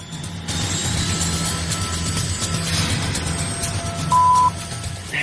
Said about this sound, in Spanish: Eso es un helicóptero militar. ¿Está despegando un helicóptero? Sí, ahí está, vuela muy bajo. Helicóptero militar.